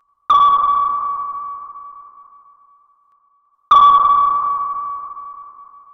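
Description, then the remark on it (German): Two sharp submarine sonar pings, each a bright tone near one kilohertz that rings out and fades slowly over about three seconds, with a long decaying tail. No voices, just the echoing pulses. “Und er hörte das Sonar vom U-Boot.”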